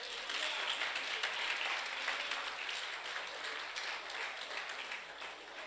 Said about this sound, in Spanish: Amén. Dale palmas a Jesús.